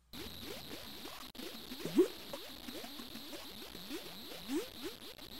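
Thick mud bubbling and glooping in mud pots, a steady stream of low, wet pops with slightly rising pitch, one louder plop partway through, over a faint constant hiss.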